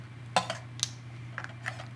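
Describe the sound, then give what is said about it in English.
Flake shellac, ground fine in a coffee grinder, is poured into a bottle, making a few light, scattered clinks and ticks against the glass over a steady low hum, with no one talking. “So you can take your uh, flake shellac, put it in the coffee grinder, grind it up nice and fine, and then what I'll do is I'll pour that”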